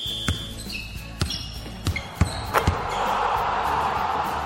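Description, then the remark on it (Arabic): A basketball bounces sharply on a hard court several times at irregular intervals during a basketball game, with squeaky shoe-like chirps and a broad crowd murmur swelling in the background. “حفلة عرس مباراة كرة سلة”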